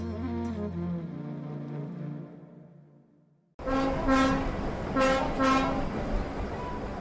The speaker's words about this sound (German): Schnaufend setzt sich der Zug im Bahnhof von Ollantaytambo in Bewegung. Die kleine Stadt liegt in den Anden Perus auf 2848 Metern.